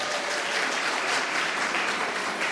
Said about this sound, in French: Merci d'être là et je vous demande de l'applaudir.